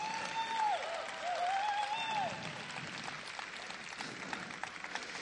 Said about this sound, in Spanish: Así que quiero que le den un aplauso bien fuerte de bienvenida